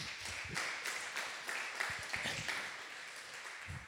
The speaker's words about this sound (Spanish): Se pueden sentar discípulos. Un aplauso para los discípulos.